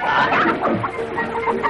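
A rooster clucks in agitated, rapid bursts, several squawky calls tumbling one after another against a steady background hiss, fairly loud, as a coachman chases it with an axe in the rain on a hacienda.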